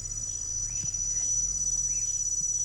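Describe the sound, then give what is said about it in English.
An African cricket's steady, high-pitched chirp trills continuously in the background at a tree-planting site in Kenya, layered with a low hum, while faint bird-like calls flicker briefly in the mix. “That's the African cricket. You can hear that?”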